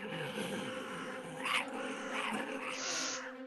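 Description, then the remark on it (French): Low, rumbling wolf growls fill the whole stretch, close and steady, with a couple of sharper snarling bursts rising over the top. Six wolves coming out of the woods growl together; no one speaks. “puis tu vois à travers, le bois, tu vois des yeux jaunes qui vous fixent vous entendez des grognements tout proche”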